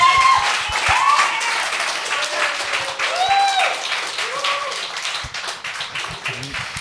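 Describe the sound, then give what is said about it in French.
A crowd applauds a stand-up comedian steadily, a dense wash of many hands clapping at once, with cheers and whoops rising over it throughout. The applause stays loud and even from start to finish. “Ah, tu ben, l'applaudir,”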